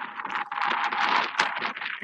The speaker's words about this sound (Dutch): Nou, je hoort waarschijnlijk hier wat wind. Ik probeer het een beetje af te schermen.